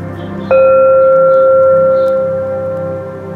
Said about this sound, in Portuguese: Agora, faremos o Oponopono. Todas as vezes que você ouvir esse barulhinho aqui de sino,